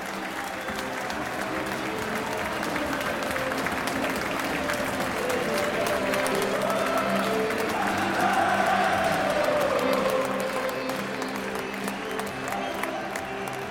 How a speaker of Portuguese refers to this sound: time do Arsenal saindo aplaudido de mais um jogo aqui no Emirates.